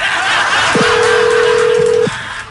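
A telephone line tone while dialing a call to a man's wife in León, Guanajuato: one steady, low electronic beep lasting over a second, set against a constant background hiss, with no voices.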